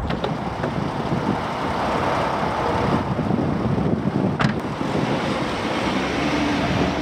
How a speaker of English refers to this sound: I feel like I'm in a race car. This thing drives nice, doesn't it's it? It's wonderful.